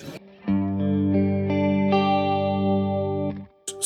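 An electric guitar played through a tri-chorus effect, with three chorus voices (one right, one left, one in the middle), plays a few notes that build into a sustained, shimmering chord, thickened by the lush chorus, fairly loud, then cut off abruptly.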